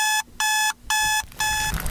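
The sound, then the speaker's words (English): An alarm clock rings in loud, shrill electronic bursts, four pulses in quick succession with brief gaps between them, clear with no voices, used as the sting for a segment called Rock Clock. “Our next segment is called Rock Clock.”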